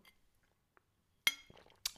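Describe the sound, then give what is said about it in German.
Someone drinking from a glass water bottle: after near silence, a sharp ringing glass clink, some quieter handling noises, then a second bright clink at the end. No one speaks. “eine Wasserflasche mit ähm, Glas, falls du nicht direkt daraus trinken magst, wie auch immer. Meine lächelt mich zum Beispiel gerade an”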